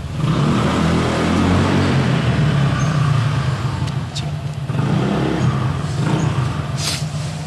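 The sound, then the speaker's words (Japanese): The engine of a motorcycle parked outside rumbles loudly and steadily for several seconds, its deep throbbing drone swelling slightly at times, with no voices over it. “最近そうだここに止めてるバイクの人も、うん、不規則だな、うん、真夜中に来たりするし”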